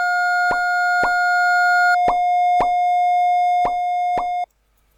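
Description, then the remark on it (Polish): Audio graph tones: a steady synthetic hum with a second, higher tone that stops partway, punctuated by six short plopping clicks marking intersection points at uneven intervals. No one speaks. “Słyszymy to drugie, ale słyszymy dźwięki, co, które oznaczają miejsca, w którym przecina się ono z tym pierwszym.”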